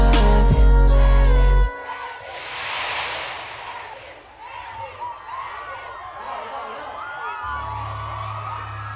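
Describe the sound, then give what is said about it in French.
A concert crowd chants the artist's name at the end of a song, shouting and cheering loudly, voices blending into a continuous roar with scattered whoops, after a burst of loud music at the start cuts off. “Vous avez peut-être entendu le, nom de l'artiste scandé à la fin par la foule.”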